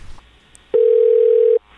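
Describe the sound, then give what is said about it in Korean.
A single steady telephone ringback tone hums for just under a second, clear and fairly loud, the purr you hear while waiting for a call to connect, here while placing a phone interview call to a baseball pitcher, with quiet line noise before and after. “이 선수의 목소리를 꼭 들어보고 싶어서 전화 인터뷰를 신청을 했습니다.”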